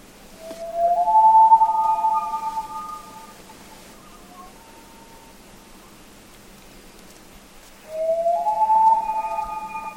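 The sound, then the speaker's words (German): A common loon, recorded in Greenland, gives two long, mournful wailing calls, each rising from a lower note into a sustained higher tone, separated by several seconds of quiet hiss, with no talking. “Vogel der Woche: Eistaucher”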